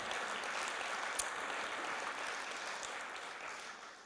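Steady applause from an audience fills the whole stretch, a dense wash of many hands clapping at once, fairly loud and even before thinning slightly at the very end.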